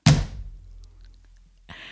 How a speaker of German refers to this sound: Es ist ein dicker Schinken. Vielleicht habt ihr ja das Knallgeräusch gehört.